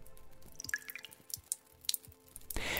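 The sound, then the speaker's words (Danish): Slow water drips fall one by one inside a cistern, irregular plinks and taps, ending with a brief wash of hiss; the water is seeping slowly in through the concrete. “Til gengæld gør det langsomt sivende vand altså, at der bliver dannet fine istablignende drøbsten de såkaldte stalaktitter og stalagmitter, som er drøbsten, der vokser henholdsvis ned fra loftet og op fra gulvet.”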